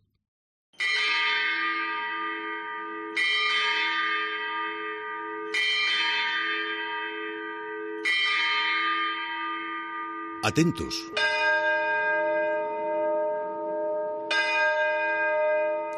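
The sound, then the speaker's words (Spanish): The bell of the cathedral clock in Burgos strikes the hours slowly and repeatedly, each loud, rich stroke ringing out with a long resonant decay before the next, with a brief rustle and a spoken word partway through. The clock was installed around 1519 and restored in the late 18th century, with a figure above the clock face high in the nave. “Suenan las horas en un reloj que me instalaron, creo que allá por 1519, aunque fue restaurado a finales del siglo XVIII.”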